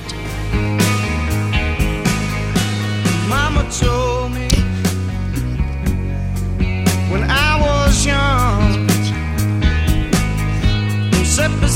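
A rock band song plays steadily, with a driving drum beat, bass and chugging rhythm guitar, and bending lead guitar lines weaving over the top throughout.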